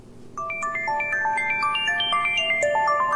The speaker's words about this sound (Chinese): 啊，我接个电话啊。